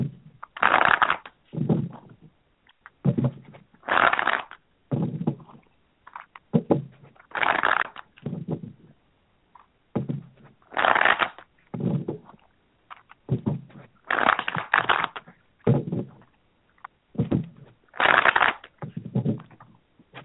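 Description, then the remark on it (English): Tarot cards are shuffled before a reading in a steady, repeating rhythm, each riffle a brief papery burst followed by a short pause, with no talking. “Just one moment while I shuffle, and I'll be right back with your reading.”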